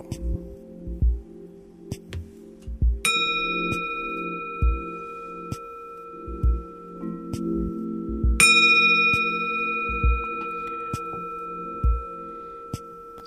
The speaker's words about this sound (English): So I take out the uh, uh, take off the clay on the bell, and then I show you how it sounds now.